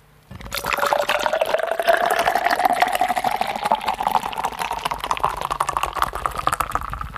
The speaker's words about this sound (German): Ist das Bier? Jetzt kippe ich es ein.